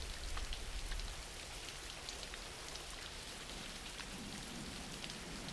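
Steady rain falls continuously, a dense hiss of drops pattering on surfaces with scattered sharper taps, moderately loud, with a low rumble early on and no voices.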